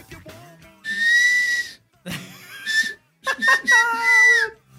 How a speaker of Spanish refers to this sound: Yo no sé, yo, yo, no sé silbar, güey. Yo no sé silbar. Este, este, es mi mejor silbido.